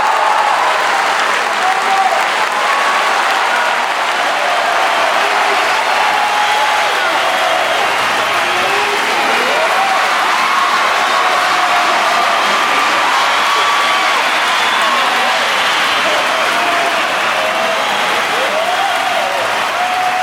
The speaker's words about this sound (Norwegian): Og for at vi skal kunne snakke om frustrasjon, så må vi starte med applausen.